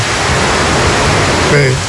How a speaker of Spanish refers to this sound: Me acaban de mandar esto, vamos a escuchar eso en Villalba. Mira qué lindo. mira eso, la guagua, Mira eso, mira qué lindo. Pero inundado, mira, mira, cómo está esto.